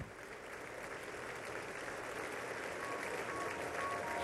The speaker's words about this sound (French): Et il y a tous les collaborateurs de Bernadette Chirac qui ont été invités à boire le café. Et là, la standing ovation.